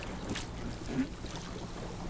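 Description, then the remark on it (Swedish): A motorboat speeds across open water, its steady rushing drone mixed with wind buffeting the microphone and the wash of water, heard continuously. “det går väldigt fort den där båten.”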